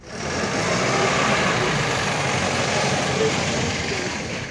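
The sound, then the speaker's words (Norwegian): A bus engine runs with a steady, loud rumble, holding an even drone for several seconds, with some faint indistinct voices mixed into the noise; buses carrying arrested Bolsonaro supporters to prison in Brazil. “Buss etter buss med arresterte Bolsonaro-tilhengere er på vei til fengselet.”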